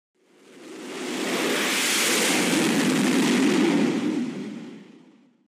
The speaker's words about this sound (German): Das war der Start eines Kampfflugzeuges von einem Flugzeugträger.